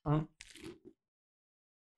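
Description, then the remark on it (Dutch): A crisp, crunchy bite into a lettuce leaf wrap with samjang sauce, followed by a couple of brief chewing crunches, then a faint click; a short voiced sound precedes the bite. “Ja, ik neem even een hap. Ik heb nu dus een, een blaadje sla.”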